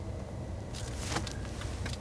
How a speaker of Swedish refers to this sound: Kolla vad många jävla bilar som kom.